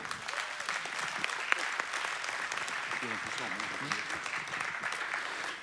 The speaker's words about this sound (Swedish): Eh, först ska vi tacka er. En stor applåd.